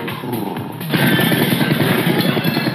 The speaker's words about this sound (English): Put the key in the ignition and listen to that baby pull.